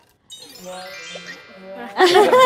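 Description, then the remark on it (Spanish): Glasses clink together in a toast, a bright ringing tinkle that lingers, followed by a louder burst of overlapping chatter and laughter. “Bueno, salud por pues salud. salud.”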